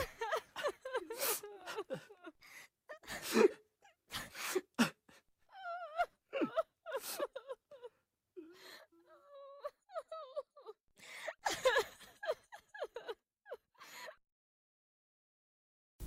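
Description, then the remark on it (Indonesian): People sobbing and wailing, with broken gasping cries and drawn-out moans rising and falling in uneven bursts, several voices overlapping before fading into silence near the end. “Isak tangis orang di sekitarnya membuat lelaki itu sesak napas.”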